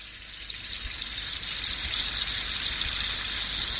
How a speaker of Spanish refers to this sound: Y si tú coges el palo de lluvia y le das la vuelta, suena esto.